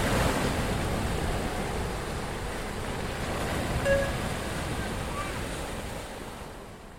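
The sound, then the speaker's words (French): Open-sea waves at night, heard from the deck of a ferry bound for Tenerife, wash and churn in a steady, dense roar, with gusting wind buffeting the microphone throughout. A brief faint tone surfaces around the middle, and no one speaks. “Bah de nuit euh, en pleine mer, euh, globalement on voit rien du tout.”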